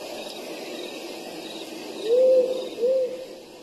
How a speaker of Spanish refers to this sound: ¿Qué les parecen mis búhos? Están mejores que los cuervos, ¿no?